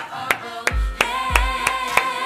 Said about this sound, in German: Es war ein gutes Interview. Da gibt es von mir einen Applaus.